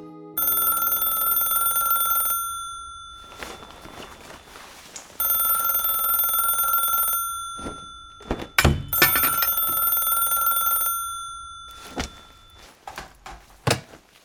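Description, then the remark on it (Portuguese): A telephone rings in three long, bright electronic bursts separated by short pauses, with a few dull thumps and knocks mixed in and following the last ring. No one speaks. “Alô? Onde você esteve, Leandro? Estão ligado para você o dia todo.”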